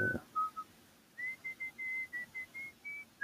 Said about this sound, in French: Bon, tout d'un coup, euh, ça sonnait, ça sonnait, mais en même temps, il entendu un, bruit bizarre. Un monsieur qui sifflait avec son chien qui venait vers lui.